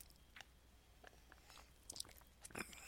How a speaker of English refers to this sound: So there we go, another sip of the the Natty Rush for you guys there.